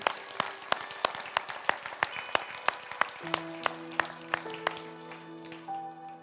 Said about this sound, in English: So, can we give all the mamas a big warm clap celebration this morning?